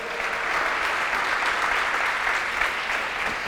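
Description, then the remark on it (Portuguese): A church audience claps steadily for a few seconds in applause for the angels of the Lord during a sermon, a dense, even patter of many hands at constant loudness with no voices rising above it. “Você pode dar um aplauso aí?”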